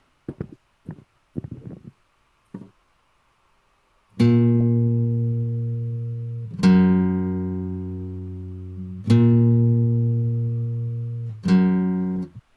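A guitar plays a slow two-note motif, a minor third between A sharp and F sharp, alternating between the lower and higher note four times. Each note rings out loudly and decays, preceded by a few brief, faint sounds.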